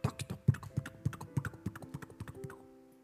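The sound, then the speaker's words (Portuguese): A voice makes quick, sharp tongue clicks in a galloping rhythm, imitating horse hooves clip-clopping, fairly loud, with no talking. “Conversava com os cavalinhos, conversava com os cowboys, e tinha o meu cavalo mais rápido, tinha o cavalo mais lento, e eu fazia croc,”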